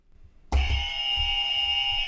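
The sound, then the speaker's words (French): A loud game show buzzer, installed for a broadcast to flag English words used in French, cuts in abruptly after a brief quiet moment, holding one harsh, steady, bright electronic tone for nearly two seconds without pause or any voices. “Alors, euh, pour cette émission, j'ai eu une idée c'est qu'on a installé des buzz.”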